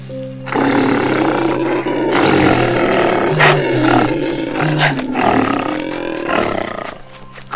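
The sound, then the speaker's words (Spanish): A big monkey roars loudly, one long rough bellow swelling and breaking into growling bursts for several seconds, with no talking. “el gran mono se le apareció a Tamborcito”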